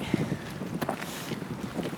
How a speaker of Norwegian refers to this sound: Ja, det er litt vind òg her oppe.